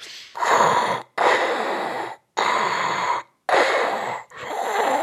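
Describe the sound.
A voice imitates Darth Vader's heavy, mechanical respirator breathing from Star Wars, with four long, loud hissing breaths in steady rhythm, each separated by a brief silent pause.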